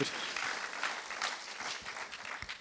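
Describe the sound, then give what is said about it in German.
A short burst of audience applause, steady dense clapping from many hands that holds for a couple of seconds with no voices over it. “Und ich würde sagen, nein, einen kleinen Applaus, dann kannst du loslegen.”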